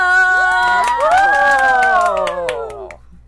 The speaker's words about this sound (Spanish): aplauso.